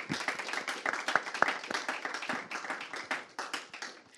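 A crowd applauds steadily, many hands clapping in a dense, continuous patter with a few sharper individual claps standing out, sustained for several seconds at moderate volume.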